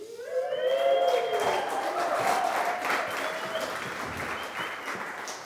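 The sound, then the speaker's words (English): A crowd bursts into steady, sustained applause with a few high whoops and cheers rising over the clapping at the start, cheering on a panel invited up to speak, the noise holding loud and dense throughout. “So if you kind of cheer them on, so”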